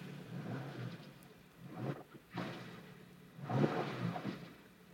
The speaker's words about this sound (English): Did you hear that? Yeah, yeah, yeah. Just give us one more. Give us one more rev.